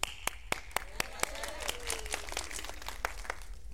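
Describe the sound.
Audience applause with a few sharp, evenly spaced claps at first, swelling into a dense, steady patter of many hands clapping, with faint voices mixed underneath.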